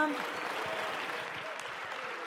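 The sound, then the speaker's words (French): Steady applause from part of a parliamentary assembly, a little under half of a deputy's groups, a dense, even patter of clapping hands at moderate loudness throughout, with faint voices murmuring beneath it. “Monsieur le député Fort, vous savez que les effets de manche pour être applaudi par un peu moins de la moitié de vos groupes, si j'ai bien compté.”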